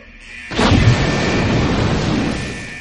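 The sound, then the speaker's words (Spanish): A bomb disposal unit carries out a controlled explosion of a sock: a single loud explosion bursts out suddenly, followed by a heavy rolling rumble that lingers for a couple of seconds before slowly fading. No voices are heard. “La unidad de artificieros hizo una explosión controlada del calcetín.”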